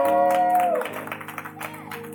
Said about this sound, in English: Y'all should definitely clap better than that for that.